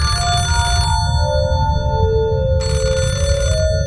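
telephone ringing

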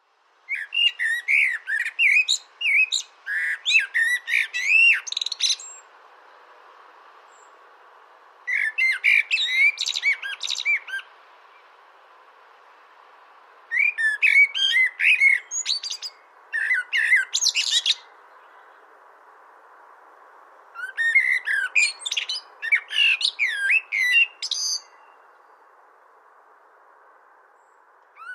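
common blackbird song

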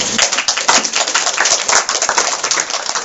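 audience applause

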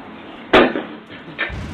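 pounding on a door

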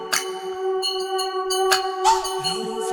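bells

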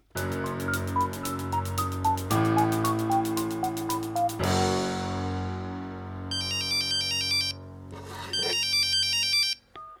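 telephone ringing

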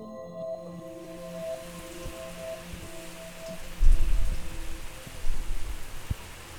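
rain falling on surfaces

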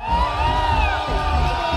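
crowd cheering and shouting

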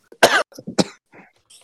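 coughing fit

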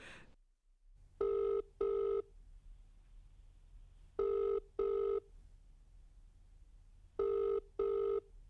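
telephone ringing

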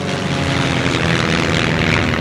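propeller airplane flying overhead

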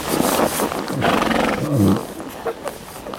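horses

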